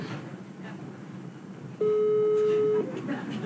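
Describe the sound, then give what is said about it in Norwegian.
A single steady ringback tone, about a second long, comes through a phone on speakerphone as a call is placed to a man, clear and moderately loud over a faint murmur of background noise. “Skal vi høre om han Hører dere noe gjennom Hører dere det? Hører dere ringe?”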